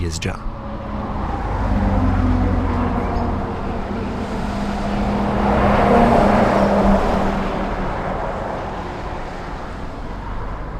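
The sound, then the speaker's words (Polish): Steady roar of heavy road traffic with deep engine rumble on the B6 road, with trucks from across Europe passing day and night; a large vehicle swells louder as it passes midway, then fades back into the continuous flow. “Znamenša za ludzi v hornej si přidroze, džen a noc nakładna auta z cyveje Europy po se”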